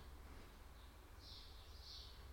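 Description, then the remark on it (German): Faint birds chirping in short high-pitched bursts over a low, steady background rumble, with no one talking. “Bisschen Vogelgezwitscher.”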